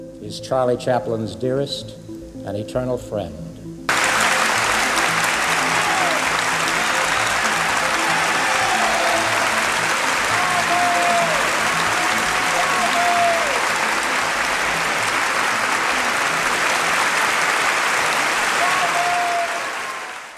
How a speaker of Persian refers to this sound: مراسم اسکار 1972 چارلی چاپلین در سن 83 سالگی برای دومین بار و البته نه آخرین بار اسکار رو به دست میاره و مردم 12 دقیقه ممتد اون رو تشویق میکنن